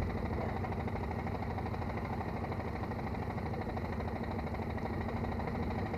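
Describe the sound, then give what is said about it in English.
A car engine idles steadily while the car is held up and stopped, a continuous low rumble with a faint mechanical hum, holding an even level throughout with no voices or other sounds. The engine has a coiled pipe for a radiator. “The, the, the heat, the engine overheats when you're stopped too long.”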